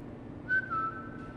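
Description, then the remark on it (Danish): A man in a long trench coat and an old fedora hat whistles a short melodic phrase out of the dark in a parking garage, a couple of sliding notes held steadily, fairly soft over a low background rumble, with no talking. “Ud fra mørket hører hun en fløjten.”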